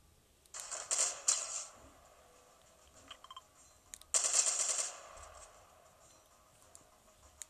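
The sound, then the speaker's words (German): Two bursts of rapid video game gunfire, the first about a second long and the second a bit shorter, each a loud crackling rattle of shots with quiet gaps between and no talking; the last shot kills the game character Sloan. “Oha, mit dem letzten Schuss einfach noch Sloan getötet.”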